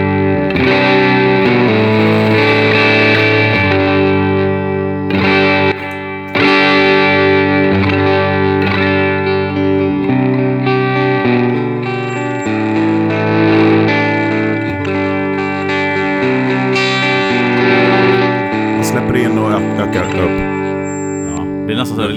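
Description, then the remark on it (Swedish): A heavily distorted, effects-laden tone plays continuously and loudly through a high-pass filter on an analog circuit with digital control, with a thin, high-pitched feedback whine ringing in the treble through the second half as the filter is adjusted. “lite rundgång ja, precis, i diskanterna.”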